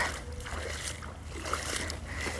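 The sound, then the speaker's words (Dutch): Steady sloshing and splashing of feet in rain boots wading through deep standing water, with repeated surges of churning water at a walking rhythm and no voices. “Echt niet normaal hoeveel water er staat. Ik ben echt zo blij dat ik gewoon mijn regenlaars aan heb.”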